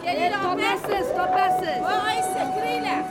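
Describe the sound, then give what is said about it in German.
A bustling crowd at the great bazaar in Tashkent, Uzbekistan, fills the scene with steady, overlapping chatter from many voices, lively throughout, with a faint sustained tone running beneath the babble. “Die Hauptstadt von Usbekistan, das ist Taschkent und wie so oft, wer was erleben will, der geht auf den Bazar.”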